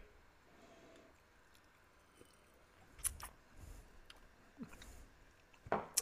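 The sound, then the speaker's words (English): A few quiet sniffs and small sips of Kentucky Chew whiskey, with short breathy bursts and a faint click or two against a near-silent background. No one speaks. “We're sniffing and drinking.”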